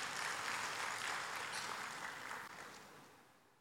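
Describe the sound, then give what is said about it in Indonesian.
A crowd applauds together for Jesus, a dense, steady wash of clapping that holds strong for a few seconds before gradually thinning and fading out. “Berikan tepuk tangan buat Tuhan Yesus.”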